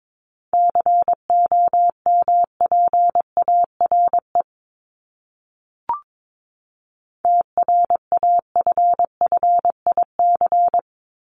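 Morse code beeps sending a word at 22 words per minute, in a steady mid-pitched tone, keyed rapidly in short and long pulses: two bursts of characters separated by a pause, with a faint click in the gap.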